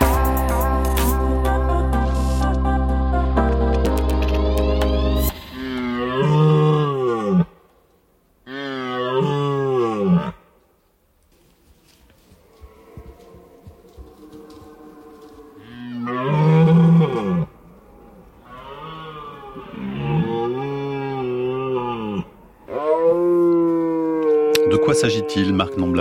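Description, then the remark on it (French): A red deer stag bellows in the rut, letting out a series of deep, groaning roars with brief silent gaps between them, loud, after a steady droning tone at the start. “il s'agit de Bram, euh, de, de du cerf, de, en train de.”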